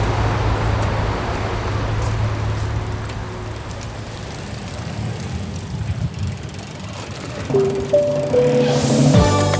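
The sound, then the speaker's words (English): A steady roar of city street traffic in Shanghai, China, as heard from a moving bicycle, with engines rumbling throughout and a burst of tonal, horn-like sounds and a rising whine near the end. No one speaks. “Taxis are cheap and plentiful in Shanghai, but I prefer to get around by bike, which is not only faster due to the city's traffic, but way more fun.”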